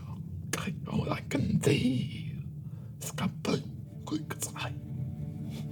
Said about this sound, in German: Hörst weiter das Flüstern einer Sprache, die du nicht verstehst.